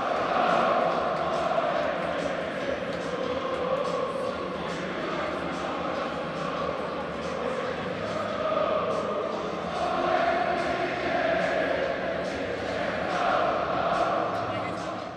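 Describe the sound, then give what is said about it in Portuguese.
A large crowd of Arsenal football fans sings a chant for Zinchenko together, a steady, loud wall of massed voices with a rising and falling melody that carries without a break for the whole stretch. “Torcida do Arsenal cantando muito a música para o Zinchenko, né?”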